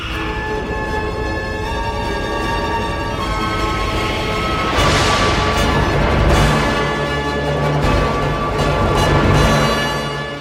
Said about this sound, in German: Und wenn die Akademie für alte Musik dann noch eine Windmaschine zum Einsatz bringt, was vermutlich nicht in der Partitur steht, dann darf der Sturm ruhig einmal volle siebeneinhalb Minuten toben.